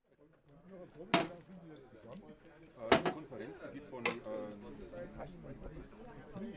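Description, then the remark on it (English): Three sharp metallic clanks ring out at irregular intervals as the metal compartment door of a street vendor's portable sausage cooker is opened and shut, over a steady murmur of voices, on a city street in Germany. “These vendors offer sausages cooked and kept warm using portable cooking devices, which make distinctive sounds when their metal compartment doors are opened and closed.”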